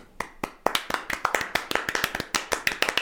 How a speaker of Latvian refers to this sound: Es domāju, mēs esam pelnījuši sev mazus aplausus.